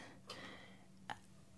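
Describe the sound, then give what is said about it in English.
Two faint, crisp ticks from an old-fashioned alarm clock in a son's bedroom, a little under a second apart, with no talking. “he has like an old fashioned alarm clock, and it was ticking away.”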